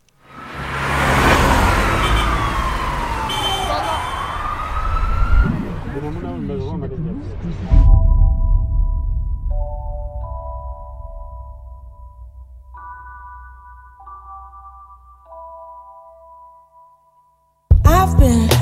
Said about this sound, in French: continuer en musique avec une artiste que tu connais par cœur maintenant